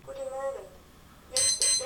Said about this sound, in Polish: Budzik. Pierwsza. O właśnie. Mamy i wibrację, i budzik.